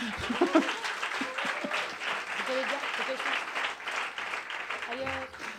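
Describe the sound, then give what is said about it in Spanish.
A crowd applauds steadily for several seconds, a dense, even patter of many hands clapping, with scattered voices and a bit of laughter mixed in underneath. “Un aplauso, ¿no? Que la ha conseguido.”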